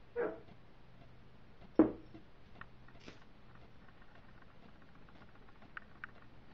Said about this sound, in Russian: Мои собаки всякое тут ходят, пугают. Не обращайте внимания, все нормально во время ритуалов весь дом оживляется, даже стены.